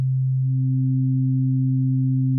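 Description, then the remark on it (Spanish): A vibrating string sounds a steady low pure tone alone, then about half a second in, as the string also vibrates in two equal halves, a second tone one octave higher, vibrating twice as many times per second, joins and both sustain together, smooth and even, to the end. “Este sonido 2 vibra el doble de veces por segundo que el sonido 1.”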